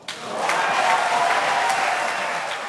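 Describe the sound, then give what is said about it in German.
Sustained, minutes-long applause after Boris Rhein's election with 74 yes votes, from people standing in the guest gallery and the standing black-green coalition faction; a dense steady wash of clapping that swells in the first half second and holds at a fairly loud level, with no voices standing out. “Minutenlanger Applaus, die Menschen auf der Gästetribüne stehen, genauso wie die schwarz-grüne Fraktion.”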